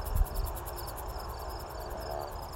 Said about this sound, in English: Well, these crickets are noisy too, but for some reason it's not like an annoying sound.